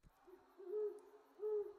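An owl hoots twice in a low, steady tone, each call swelling briefly louder before fading, heard alone against a quiet background.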